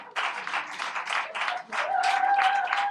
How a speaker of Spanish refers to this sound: Un aplauso